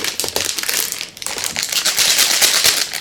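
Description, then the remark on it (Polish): Three plastic instant noodle packets crinkle and rustle continuously as they are taken up for their seasoning while cooking, a busy, crackly stream of bright crackles with a brief lull partway through, then louder handling. No one speaks. “Teraz biorę te trzy zupki chińskie, bo będą mi potrzebne przyprawy z nich.”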